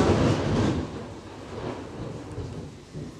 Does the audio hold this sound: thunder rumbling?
yes